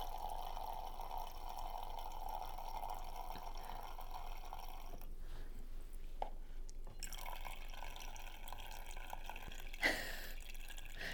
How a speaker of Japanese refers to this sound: コーヒーメーカーがなんかおかしなことになったっていう話してたじゃないですか原因が分かりましてさっきよく見たらねこういうことしちゃいけないんだと思ってあのー、分かりますか今 コーヒー出てきてるの音で。